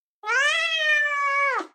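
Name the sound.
cat meowing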